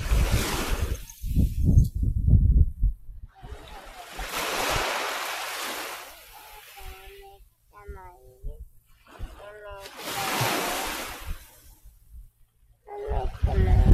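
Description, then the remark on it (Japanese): Small waves wash onto a seashore in two soft, hissing swells, recorded with a pin microphone, with rumbling wind buffeting the microphone at the start and brief voice-like tones in the quieter gaps. “聞こえましたでしょうか今、さざ波を撮ってみましたが、ピンマイクでは音は入るんでしょうかね。”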